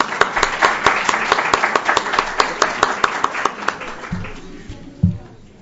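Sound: audience clapping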